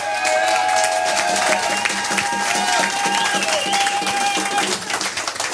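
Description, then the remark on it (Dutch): An audience breaks into sustained applause with cheering and whistles, dense steady clapping holding at full loudness for several seconds before thinning slightly at the end. “Mag ik een applaus”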